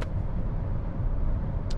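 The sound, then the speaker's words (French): A steady, low rumbling drone of a modern car being driven toward the Nantes ring road in France, heard from inside the cabin, with even road and engine noise and no one speaking. “C'est vachement bien ces bagnoles modernes, hein, mine de rien.”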